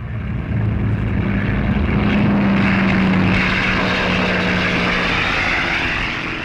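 A propeller aircraft engine drones loudly and steadily for several seconds, a deep buzzing roar with a low humming tone that rises slightly in pitch and then settles. No one speaks.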